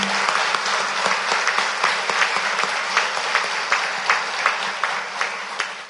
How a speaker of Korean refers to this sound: 부활, 승천하셔서 우리에게 부활의 소망을 주시고 우리를 데리러 다시 오실 주님께 다시 한번 감사와 영광의 박수를 올려드립니다.